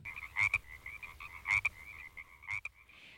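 Frogs croaking: three loud, rasping croaks about a second apart stand out over a steady, high trilling chorus that runs throughout, without any voices.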